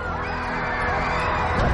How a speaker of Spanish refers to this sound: Los estadounidenses vuelven al espacio cuando el Discovery deja atrás la torre. Gritos de júbilo en todas partes.